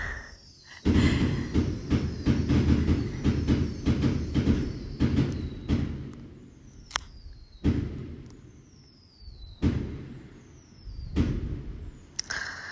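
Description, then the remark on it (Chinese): Firecrackers go off in a dense, rapid crackling volley for several seconds, then give way to a handful of separate sharp bangs over a low rumbling background. No one speaks. “大家听一会儿炮声吧。”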